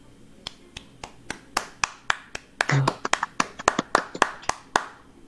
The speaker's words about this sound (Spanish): le mandamos un, un fuerte eh, aplauso y un abrazo hasta donde está.